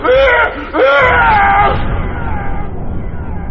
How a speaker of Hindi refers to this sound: हिम्मत जुटाकर जब वो जरा सा पलटे तो अपनी बीवी का हंसता चेहरा देख जोर से चीख पड़े